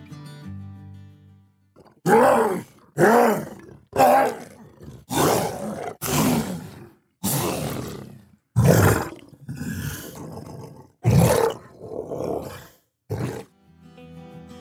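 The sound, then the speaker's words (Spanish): A deep, guttural roar of a bloater, a giant, bloated, fungus-filled monster in a video game, repeats in about a dozen heavy bursts, each a rasping, growling bellow separated by short pauses, loud with no speech over it. “Gigantes, están llenos de hongos y su fuerza es su mayor amenaza, además de lanzar esporas. Los bloaters suenan así.”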